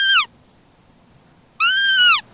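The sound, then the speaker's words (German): Two high, plaintive bleats from a hunting lure whistle imitating a roe deer fawn's distress call, used to lure a fawn and doe at the forest edge. Each is a wavering, harmonic cry, the second longer, separated by a pause of near silence. “Das ist jetzt Kids-Angstgeschrei. Das simuliert ein Kids, was irgendwo Mama, Mama ruft.”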